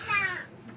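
A baby lets out a brief, high-pitched babbling coo, a single short vocal burst that trails off into quiet room tone, with no one else talking.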